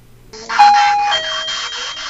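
An electronic doorbell chime rings out clearly, two sustained tones in a ding-dong pattern over a faint background hiss, with no one speaking.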